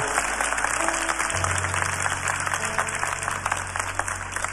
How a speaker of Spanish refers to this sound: ¿Qué tal si me ayudan a darle un aplauso a toda la, la iglesia en Montevideo?